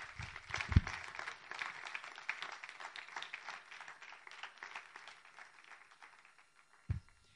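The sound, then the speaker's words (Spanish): A church audience applauds the Lord together in a dense, steady wash of clapping that gradually thins and fades toward the end, with a couple of low thumps. “Puede darle un aplauso al Señor.”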